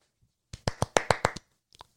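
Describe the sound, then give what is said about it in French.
A short burst of hand clapping done by professionals: about eight sharp, evenly spaced claps in quick succession, followed after a brief pause by a couple of softer ones. No one speaks. “Ces, applaudissements ont été faits par des professionnels.”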